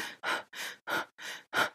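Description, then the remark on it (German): Quick, shallow breaths drawn in and out in a steady rhythm, six short airy puffs, demonstrated by a voice with no talking in between. “hier so oberflächlich atmen, um darüber das Spüren auszuladen und darüber eben auch den Schmerz auszuladen.”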